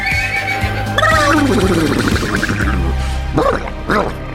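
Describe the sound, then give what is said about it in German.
A man's voice, Herr Kalkofe's, imitates a horse whinnying: a loud, wavering neigh that slides downward in pitch, then a couple of short, sharp vocal bursts near the end. “Und wo er gerade wiehert, der liebe Herr Kalkofe, da haben wir uns ein bisschen in die Nesseln gesetzt, Freundchen.”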